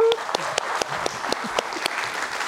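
An audience claps steadily as someone is called out onto the stage, a dense wash of many hands with sharper individual claps popping out, fairly loud and sustained throughout with no talking over it.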